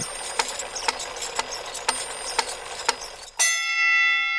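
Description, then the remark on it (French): A clock ticks steadily about twice a second, then a bright chime strikes loudly and rings on with a sustained, shimmering tone as the ticking stops; an alarm chime on a small clock built by Levi Hutchins, set to ring every morning at exactly 4 a.m. “Voilà un, carillon qui sonne chaque matin à, 4 heures à 4 heures du matin précisément.”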